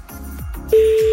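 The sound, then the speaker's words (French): A telephone ringback tone comes on partway through, a loud, steady electronic beep held over a faint, low background hum on the line. “Ah si, ça y est, on a une sonnerie.”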